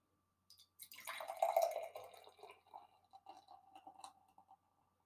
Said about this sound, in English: Pour two thirds, swirl, pour rest. Okay. Pour two thirds, swirl, and pour rest.